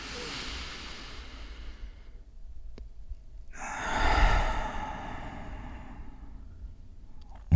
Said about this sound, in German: Ihr könnt noch einmal einatmen. Und tief aus. Und wenn ihr ausatmet, könnt ihr so viel Luft, wie euch möglich ist, aus dem Bauch rauspusten. So dass der Bauch fast anfängt, sich zusammenzuziehen und zu zittern dabei.